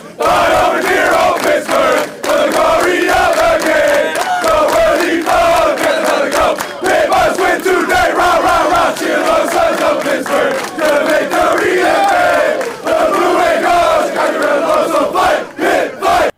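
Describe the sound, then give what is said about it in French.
A football team's players shout a loud, sustained rallying chant in unison after a victory, voices blending into a rowdy, continuous roar with rhythmic bursts, energetic throughout. “Ce qu'on vient d'entendre, euh, c'est un, euh, ben, écoute, c'est un extrait de ce qu'on a entendu après la victoire euh, de l'équipe de notre prochain invité.”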